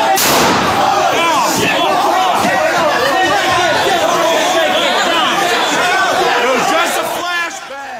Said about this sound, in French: Non, ce n'était pas un flashbang, c'était une balle euh, réelle. Ce que vous avez entendu, c'est euh, ce coup de feu ayant tué une femme, une manifestante, une émeutière